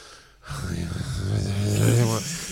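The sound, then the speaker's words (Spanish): A voice imitates frightened gasping, like someone breathing in terror: a sharp intake of breath followed by strained, voiced panting that rises and wavers for about two seconds, fairly loud. “Como respirando.”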